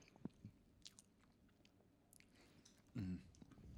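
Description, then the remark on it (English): Wet chewing sounds of a person eating a donut with thick frosting, with soft smacks and squishes, a few sharper bites scattered through, and a brief louder burst near the end. “He's still chewing a donut.”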